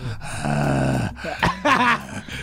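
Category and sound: vocal imitation, voice imitating heavy breathing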